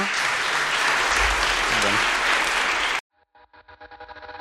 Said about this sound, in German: Ich danke euch beiden nochmal ganz herzlich und einen ganz herzlichen Applaus an die beiden bitte nochmal.